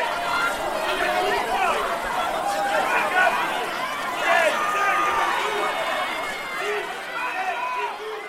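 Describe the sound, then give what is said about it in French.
Busy ambience of a departmental and regional indoor rowing championship in a gymnasium in Villemur-sur-Tarn, with a steady hubbub of crowd chatter and overlapping voices, plus scattered clatter and whirring of rowing machines running continuously throughout. “je suis dans un gymnase avec des machines extraordinaires”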